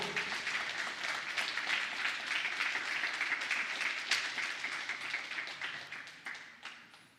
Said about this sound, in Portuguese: Quando tomam posse disso nessa manhã, pode aplaudir no nome do Senhor.